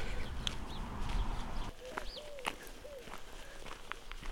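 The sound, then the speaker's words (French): Turtle doves coo softly outdoors, a few low, rounded calls repeating after a quiet start, with higher bird chirps and light rustling in the background. “les tourterelles roucoulent.”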